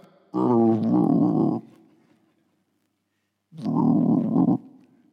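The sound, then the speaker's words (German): A voice imitates the rumbling, growling stomachs of hungry people with two loud, drawn-out throaty growls, each lasting about a second, separated by a quiet pause. “die Mägen fangen an zu knurren.”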